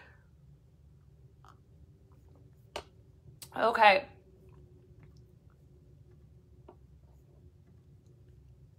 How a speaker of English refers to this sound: We're gonna take a sip of coffee. We're just like multitasking over here.